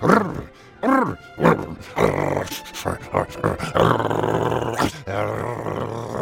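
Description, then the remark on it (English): A dog named Apollo growls and snarls at its own reflection in the water, thinking it is another dog with a bone, starting with a few short rising growls and building into a loud, rough, sustained growl with brief pauses. “So Apollo tried even harder.”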